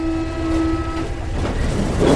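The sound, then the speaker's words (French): A metro train heading to the Jardin d'Acclimatation rumbles along the rails, with a steady electric whine that fades halfway through into louder rattling, rushing noise. Continuous, with no voices. “sautèrent dans le métro. Direction enfin le jardin d'acclimatation”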